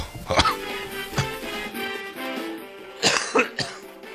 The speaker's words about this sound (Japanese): 咳が出るねエアコン生活の煽りですかね。